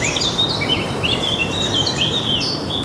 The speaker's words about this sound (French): Nous ne sommes pas dans les bois, mais à Paris, ce 17 mars 2020, des chants d'oiseaux à la place des klaxons